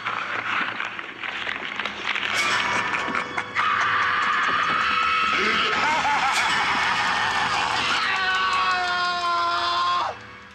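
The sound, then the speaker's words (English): A man, a Broadway actor in a horror film, lets out a long, loud, sustained scream, strained and shrill, rising and wavering for several seconds before cutting off abruptly, with no talking around it. “His scream is one of the most incredible things I've ever seen.”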